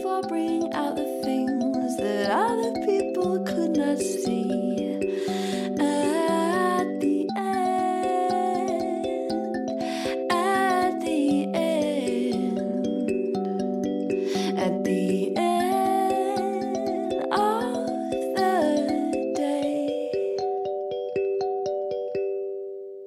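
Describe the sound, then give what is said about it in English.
Instrumental music by a Melbourne musician, with bright, layered melodic tones over steady sustained harmonies and a regular pulse, playing loud and continuous with no voices, fading slightly at the very end. “for letting us use the track you're listening to,”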